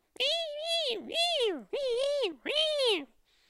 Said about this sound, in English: Up the river from me, a pack of wild dogs has made a den in an old termite mound, and occasionally I can hear the pups squealing at their parents for meat.